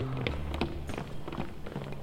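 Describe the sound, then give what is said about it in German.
Footsteps thud down a staircase in a slow, uneven series of moderately loud steps, with a soft sustained tonal hum running underneath. “Während sie langsam die Treppe runtergehen”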